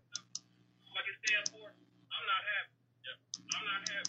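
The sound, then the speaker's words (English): Sharp clicking like keyboard typing from a phone caller's computer in the background comes through a thin phone line, mixed with muffled, garbled voice-like bursts over a low steady hum. “The, yeah, I can hear up. the computer in the background.”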